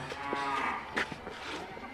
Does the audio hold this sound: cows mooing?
yes